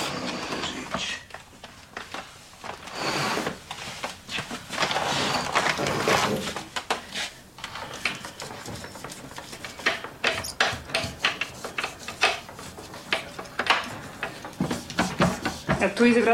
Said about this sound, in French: Et derrière ces portes, il y avait leur cuisine. On entendait le, bruit de la vaisselle et parfois l'odeur traversée.